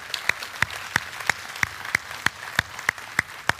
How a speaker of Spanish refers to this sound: Ahora mismo vamos a dar un aplauso a ellos, una, que se oiga fuerte.